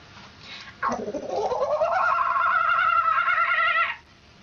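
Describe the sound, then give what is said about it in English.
A person's voice imitates a kookaburra call: a single loud, wavering, whooping cry that dips, then rises and holds for about three seconds before cutting off. “Kookaburra.”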